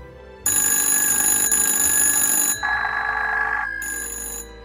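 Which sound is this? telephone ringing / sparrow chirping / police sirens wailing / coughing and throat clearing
telephone ringing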